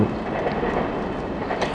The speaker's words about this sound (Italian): Il treno, ecco, vedi che passa. Sembra di essere un po' sotto i binari, eh